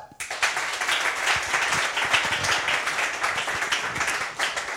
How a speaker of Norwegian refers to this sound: Skal vi gi henne en stor applaus?